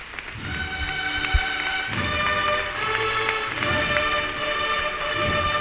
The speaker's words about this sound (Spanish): El aplauso en la calle Cristo del Calvario.